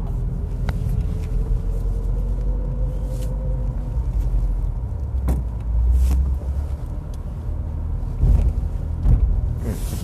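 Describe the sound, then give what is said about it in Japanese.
The engine of car No. 1 rumbles steadily, a deep continuous low drone filling the whole stretch, with a few brief clicks and swells in loudness; no one speaks. “今日は1号車で出てきてますんで1号車の時はこうあの録音っていうか雑音があんまないからですね綺麗に録音できるんで、ただエンジン音がちょっと、とどろいてくるから、”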